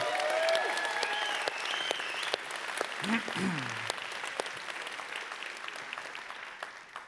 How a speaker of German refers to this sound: und ich finde, der hat noch einmal einen riesengroßen Applaus verdient. Danke für den tollen Vortrag.